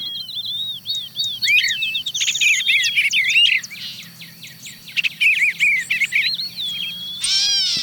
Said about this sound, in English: A cat, there's a catbird sounding like a cat mewing.